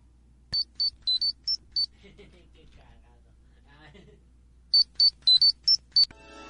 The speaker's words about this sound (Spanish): Voy a poner el, el tono comunicador. Ni modo, ni modo al cliente lo que pida, no dicen eso. Así que ahí les va este bonito sonido.